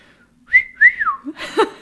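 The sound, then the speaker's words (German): A person whistles a two-part catcall, imitating how someone is whistled at: a rising note then a long swooping fall, fairly loud, followed by a brief burst of breathy voice or laughter. “Das zu imitieren, wie man selbst angepfiffen wurde.”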